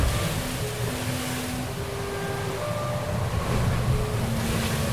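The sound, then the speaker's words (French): Steady rushing of sea water and wind from aboard a boat at sea, with a constant low rumble and faint tonal hum, continuous with no voices. “Je suis présente, voilà, je suis sur mon bateau,”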